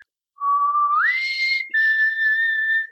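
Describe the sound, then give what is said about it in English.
A person whistles alone, clearly: a lower note slides up to a higher held tone, breaks briefly, then sustains again with a slight wavering attempt at vibrato. “And then I started whistling and trying to like do a vibrato, which, uh, you know, I'm not, I can't do.”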